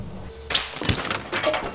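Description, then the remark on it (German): An electrical short circuit in an elevator cracks with a sudden, loud snap, then sputters and crackles in a rapid run of sharp pops and buzzing bursts. Nobody speaks. “Oh nein, ein Kurzschluss.”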